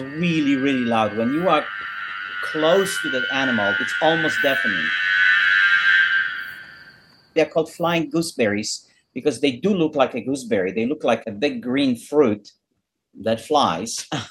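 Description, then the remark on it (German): A bladder cicada (flying gooseberry), a large green insect whose swollen, air-filled abdomen amplifies its call, calls with a loud, steady, droning buzz for about seven seconds while someone talks over it. The buzzing then stops and only speech continues. “Sie heißen fliegende Stachelbeeren, weil sie wie große, grüne, fliegende Früchte aussehen.”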